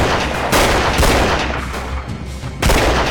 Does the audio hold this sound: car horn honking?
no